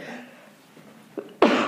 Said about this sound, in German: Ich glaube, ich muss gleich niesen. Oh, Entschuldigung.